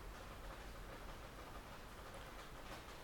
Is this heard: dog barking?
no